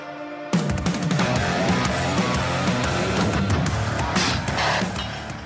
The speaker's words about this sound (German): Da werden militärische Muskeln geflext zu martialischen Klängen, wie in solchen Videos üblich.